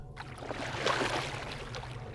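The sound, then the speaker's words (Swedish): A single splash of water from out on a lake in fog, with a soft, rushing wash that swells in the middle and fades into a low, steady background rumble. No voices. “Och precis när ni som börjar gå, och som egentligen vänder er om, så hör ni båda ett plaskande ljud.”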